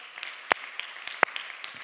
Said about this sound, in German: Hey, wie wär's, wenn wir mal hier aus Nürnberg all unseren Freunden mal einen riesen Applaus geben? Cool, dass ihr dabei seid.